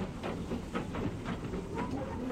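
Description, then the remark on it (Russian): A train rumbles steadily through a city past a square where vegetable sellers pack up their goods, with a rhythmic clickety-clack of wheels over the rail joints and no voices. “Вот поезд миновал площадь, где несколько торговцев овощами складывали непроданные за день товары.”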